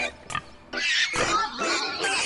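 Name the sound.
pig grunting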